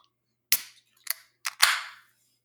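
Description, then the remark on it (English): A can being opened with effort: several sharp metallic cracks and clicks in quick succession, the last followed by a short fizzing hiss. It's fairly loud, with no talking. “If you hear the, the labored sounds of, of a can opening, that's uh, just a little monkey jokes.”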